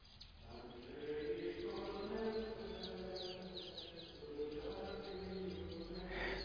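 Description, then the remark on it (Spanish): A chorus of birds sings steadily outdoors at the Tabor, overlapping chirps and quick high trills rising above a constant low background hum, with no one talking. “Me quedo en silencio para que escuches el concierto que aún hay aquí en el tabor.”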